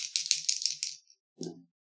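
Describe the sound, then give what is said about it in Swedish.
Dice rattle briskly in a cup or hand for about a second, a dense run of crisp clicks, then after a short pause they drop and clatter onto a table in one fuller knock. “Eh, och då behöver jag ett slag från dig också.”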